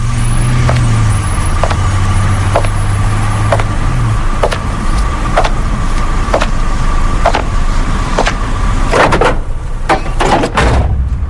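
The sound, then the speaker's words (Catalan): An immersive, processed surround sound effect made with a plugin: a dense, steady roar with sharp ticks repeating at a regular pace, a low drone in the first few seconds, and scratchy bursts near the end. No talking. “a dir, això és eh? l'essència d'un efecte gairebé, perquè, Exacte. perquè aquí sí que el so t'envolta.”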